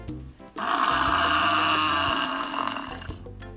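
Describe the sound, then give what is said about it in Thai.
A water buffalo lets out one long, loud, drawn-out bellow lasting nearly three seconds, harsh and throaty with a steady tone, preceded by a short grunt; no one speaks. “จะพาไปรู้จักกับเจ้าสัตว์ที่สง่างาม น่าเกรงขาม แล้วก็มีความน่ารักแล้วก็น่าสงสารด้วยค่ะ นั่นก็คือ ควายค่ะ”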